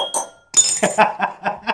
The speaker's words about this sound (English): It's that time again, baby. Happy hour is upon us. Ring the bell.